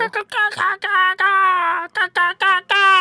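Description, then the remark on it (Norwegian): A person imitates a hippogriff call with a quick run of shrill, nasal squawks, one stretched into a long screech midway, then several short cries. The voice is loud. “Hippogriff hvordan høres den ut?”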